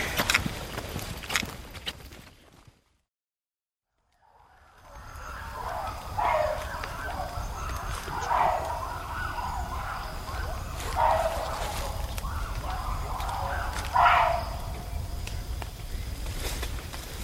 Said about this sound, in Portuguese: estava a emitir uma espécie de uma vocalização de alarme. Provavelmente viu-nos. Estava a avisar os outros. E os outros responderam.